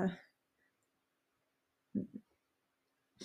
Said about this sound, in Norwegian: hun gråter, Bare for ja. de som hører på nå, så bruker hun litt tid på å puste og sånn, for hun gråter litt, og det er veldig vakkert